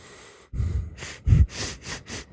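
A deep, clear breath drawn in and let out through cleared airways, with airy rushes of inhale and exhale in quick succession, fairly loud, no talking.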